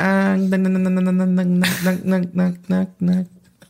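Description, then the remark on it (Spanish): A voice imitates a cicada's night call heard at a river called Tambaque in the Huasteca, San Luis Potosí, starting with a long, steady buzzing drone, then a breathy burst, and then a series of short, rhythmic pulsing buzzes, fairly loud. “Y se escuchaba un ruido así como que...”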